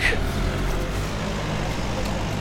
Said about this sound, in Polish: I gdzieś tu przejechała auto teraz. To jest wyjazd z podwórka? Nie, to jest ulica. Jesteśmy, a, jesteśmy przy Matejki.